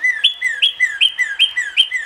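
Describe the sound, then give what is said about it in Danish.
A small red cardinal chirps in a quick, steady rhythm, repeating a bright two-part call about twice per second. Clear, with no voices or other sounds. “Det er en rød, lille fugl, Anders. Den er kendt for sin sang. Den er kendt for sin pipen, og det skal vi høre nu.”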